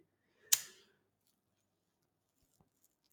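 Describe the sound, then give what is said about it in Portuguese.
A lighter is flicked once to light up: a sharp strike with a brief rasping tail, followed by a couple of faint small clicks in otherwise quiet surroundings. “Yeah, ops, deve, deve estar a ouvir aí o isqueiro, estou a acender”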